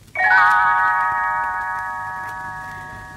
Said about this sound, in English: You will know it is time to turn the page when Tinker Bell rings her little bells like this.